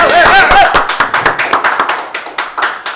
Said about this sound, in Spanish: Fuerte aplauso.